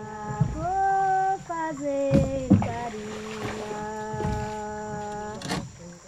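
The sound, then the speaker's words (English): A boat motor drones steadily, its pitch rising and dipping as the engine changes speed, with a few sharp knocks and splashy bursts along the way, as the boat travels deep into the forest of Acre, Brazil, on a trip of about 10 hours from the town of Mâncio Lima. “About 10 hours traveling by boat from Mâncio Lima, the last town that can be reached over land”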